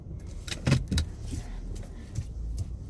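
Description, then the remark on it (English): A car idles and creeps slowly, backing out of a tight parking spot beside a huge parked truck, its low engine rumble steady, with a couple of short clicks and rattles early on and no one speaking. “back up. This is a really tight spot because it's a huge truck that parked right next to me.”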